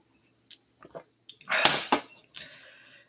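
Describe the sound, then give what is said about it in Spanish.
A few soft gulping clicks as someone drinks water, followed by a breathy exhale and a quieter sigh, with no talking. “Espera un momento que estoy tomando agua.”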